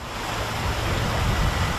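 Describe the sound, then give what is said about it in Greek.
A steady, loud roar of wind and rushing water fills the whole stretch as a waterspout sweeps over Evia, bringing heavy rain; broad and turbulent, with no voices breaking through. “Δείτε τη στιγμή που η υδροστρόβιλο σαρώνει την έβεια.”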